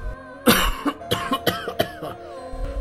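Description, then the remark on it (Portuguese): A sudden coughing fit from a person who had choked: a loud, harsh first cough followed by a rapid string of six or so sharper coughs, with no talking. “subitamente começou a tossir”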